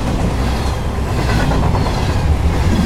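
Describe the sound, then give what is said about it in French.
A train running on rails: a loud, steady low rumble with rattling wheel clatter and a hiss of higher noise throughout, no voices. “Après, j'ai pris le train pour l'Italie.”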